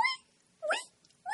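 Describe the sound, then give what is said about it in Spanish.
Bowed violins in an orchestral piece's winter section imitate the call of the coquí, a tiny frog that sings at night: three brief, high, sliding chirps in a row, the middle one sweeping sharply upward, with short silences in between and no talking. “ese es el canto de la rana coquí”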